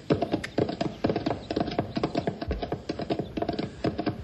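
horse hooves clip-clopping

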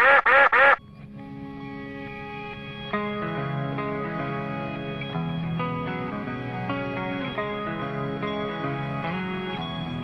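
duck quacking sound effect

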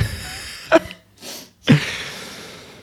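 sneezing

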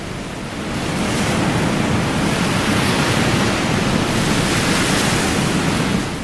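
ocean wave crashing

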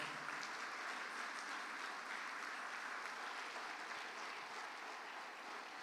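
audience clapping loudly

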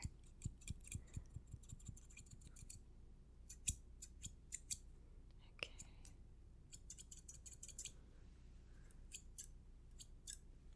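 scissors trimming beard hair

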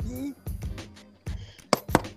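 knocking on a door

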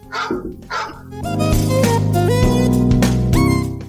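large dog barking

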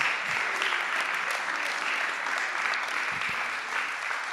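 audience applause

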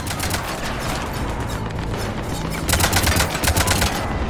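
pistol shots

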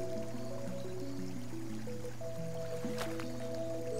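spring water flowing

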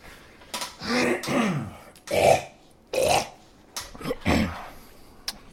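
coughing and clearing throat

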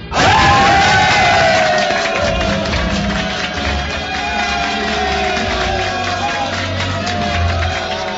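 arena crowd cheering

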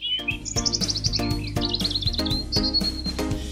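bird song

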